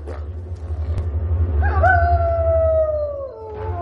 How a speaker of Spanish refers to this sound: Varios lobos acuden a la llamada de Moglin.